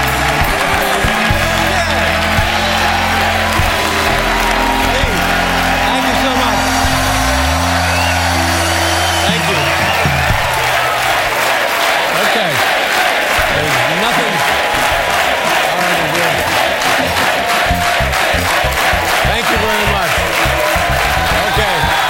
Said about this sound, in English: They will not stop applauding. This is pretty remarkable.